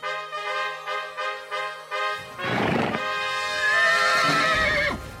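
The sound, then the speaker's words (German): A horse whinnies as a rider with a lance gets onto it for a joust, starting with a quick fluttering series of pulses, then breaking into a loud, long, strained neigh with a rough burst of snorting noise in between. No one speaks. “Irgendwie gelange ich auf das Pferd.”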